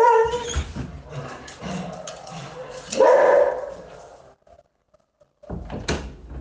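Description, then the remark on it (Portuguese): The speaker's dog barks several times at irregular intervals, fairly loud, with a brief quiet stretch before a final bark; some rustling or knocking sounds fill the gaps. “cachorro aqui já.”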